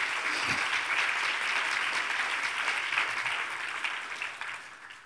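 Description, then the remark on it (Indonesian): An audience applauds for Jesus, a dense wash of many hands clapping at once that holds steadily for several seconds before gradually thinning out toward the end. No one speaks over it. “Pegang tepuk tangan bagi Yesus.”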